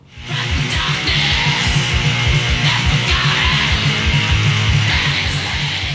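Loud, dense early black metal from 1984 with harsh distorted guitars, pounding rapid drums and high, raspy screamed vocals, sustained at full intensity throughout.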